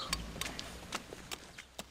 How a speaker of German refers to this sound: Ich stelle jetzt schon mal unsere leeren Hofmann-Bierkästen vors Haus.